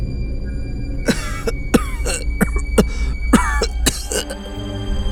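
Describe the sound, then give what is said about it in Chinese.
An old man by a lake coughs violently in a rapid series of harsh, hacking bursts, about a dozen in all, some raspy and strained, with a faint low hum running steadily underneath. “老人剧烈的咳嗽着。”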